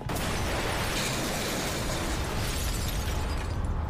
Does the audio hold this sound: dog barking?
no